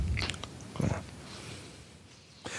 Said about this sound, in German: Warte, ich nehme nochmal einen Schluck hier.